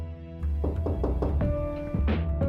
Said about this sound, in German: Und es ist noch sehr früh. Da klopft es an die Tür einer Dachgeschosswohnung in der Eichendorfstraße in Halle.